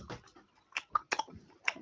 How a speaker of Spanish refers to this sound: Mm, es chicle, no puedo comer, es masticar nada más. Bueno, sí, mastícalo, pero que no se escuche tanto, bro.